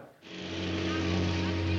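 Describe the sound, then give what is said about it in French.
A car engine roars to life and holds a loud, steady revving drone with strong low harmonics, sustained for a couple of seconds, in a film scene where James Dean's hero and his rival, each in a car, race toward a cliff edge. “Euh, le héros, donc James Dean, et son rival sont chacun à bord d'une voiture. Ils doivent foncer vers un précipice et c'est à celui qui craquera en premier.”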